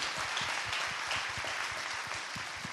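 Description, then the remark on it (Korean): A crowd applauds steadily, many overlapping claps forming a dense, even wash of noise with faint individual hand slaps poking through, sustained at a constant moderate level throughout. “우리 박수 한 번 좀 부탁드리겠습니다.”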